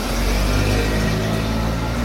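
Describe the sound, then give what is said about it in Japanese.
A car rumbles along the street, its engine and tire noise forming a loud, steady low drone that holds for a couple of seconds without any voices. “なんか今日は人通りが多いね車とか多くない”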